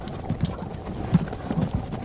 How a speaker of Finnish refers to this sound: Kuulitteko rattaan jyryvä? Kuulin. Ne tulevat.